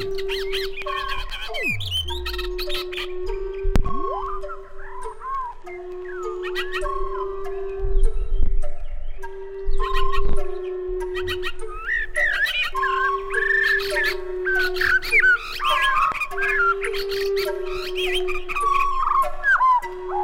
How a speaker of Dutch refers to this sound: merle noire chante posée, bien en vue, sur un toit ou en haut d'un arbre. Sa voix pleine et sonore porte loin, mais les fins de phrase montent souvent dans l'extrême aigu. Celui-ci a été enregistré en Bourgogne.